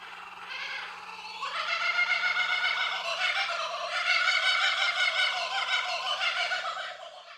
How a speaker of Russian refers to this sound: Кукабара засмеялась.